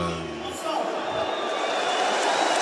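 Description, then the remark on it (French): A large stadium crowd roars and cheers in acclamation of President Emmanuel Macron, a steady, dense wash of noise that swells slightly and holds, loud and continuous, with a few individual voices briefly standing out near the start. “non, ah non, là, c'est maintenant, ce sont des acclamations.”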